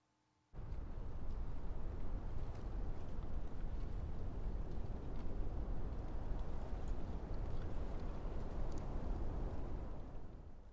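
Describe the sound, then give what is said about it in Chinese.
A gentle breeze blows in a steady, unbroken rush with a deep low rumble. It starts suddenly, holds an even level for about ten seconds, then eases off slightly at the end. No voices. “这个声音就是微风的声音哦。It's the sound of wind。”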